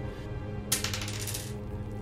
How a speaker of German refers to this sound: Bitte einen W4 würfeln.